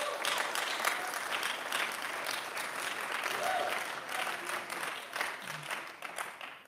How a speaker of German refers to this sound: Aber einen großen Applaus für alle, die hier sind.